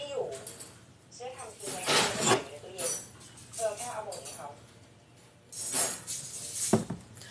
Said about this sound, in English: Dishes are almost done.